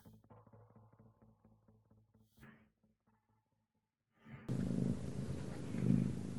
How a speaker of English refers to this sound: I hear a cat.